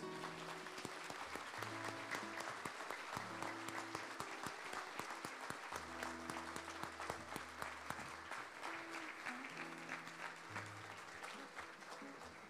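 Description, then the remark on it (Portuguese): An audience applauding the Lord Jesus: dense, continuous clapping holds steady for about twelve seconds, while low sustained keyboard-like notes shift pitch underneath. No one speaks. “aplaudir ao Senhor Jesus.”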